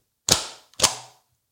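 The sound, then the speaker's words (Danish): Two sharp thumps about half a second apart as a stamp is pressed firmly onto a signed drawing on paper on a hard surface, each with a short fading ring. No talking. “Det er måske et landskab, portræt eller abstrakt og så skrive under på den, og så stempler jeg det.”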